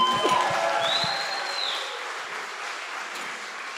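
An audience breaks into applause, a dense wash of clapping that starts strong and slowly tapers off over a few seconds, with a brief high whistle-like tone rising above it early on.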